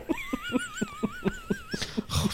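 A small dog wheezes in quick, rhythmic rasping pulses, about eight in a row, with a thin wavering whistle running over them, fairly quiet, ending in a rougher snort.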